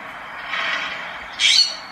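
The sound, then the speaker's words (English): A California scrub jay gives two harsh, raspy squawks on a back deck in California, the first drawn out and moderate, the second shorter, sharper and louder, with no one talking. “I'm on my back deck with my spirit bird, the California scrub jay, and a few of our other regular feathered friends”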